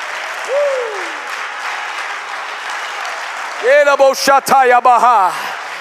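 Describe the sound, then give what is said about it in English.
An audience claps hands in praise to the Lord in a steady, dense patter that runs throughout, with a brief rising whistle early on and a loud, strained voice calling out over the clapping near the end. “Come on, somebody, put your hands together and clap to the Lord right now.”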